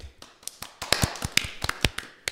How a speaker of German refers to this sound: Und ich würde sagen, da gibt es einen kleinen Applaus für.